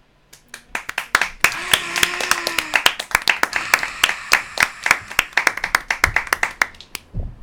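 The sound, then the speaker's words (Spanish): An audience applauds as the lights come on, with many sharp hand claps in a dense, steady patter, building quickly and thinning toward the end, with faint voices murmuring underneath. “Y la gente agarra, se prenden las luces, la gente aplaude.”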